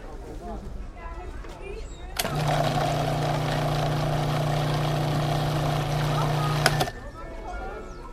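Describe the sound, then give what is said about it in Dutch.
A blender with counter-rotating blades, blending pear and other fruit into a smoothie, whirs loudly into life, running at a steady, high-pitched motor drone for about four and a half seconds before cutting off abruptly, with faint background murmur before and after. “Dat zijn deze vlijmscherpe, contra-roterende mesjes.”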